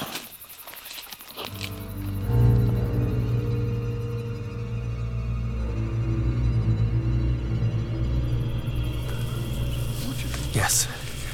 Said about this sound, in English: The dark tome is starting to hum. Can't you hear it hum? It's responding to the rift in the floodgate.